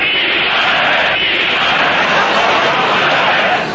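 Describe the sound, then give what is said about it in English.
A large crowd roars and chants together in salute, a dense, loud wall of many voices that stays steady for several seconds with no single speaker standing out. “crowds were rising and saluting the little man with the funny walk and toothbrush mustache.”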